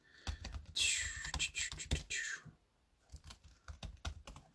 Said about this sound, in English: like all the typing i type pretty quick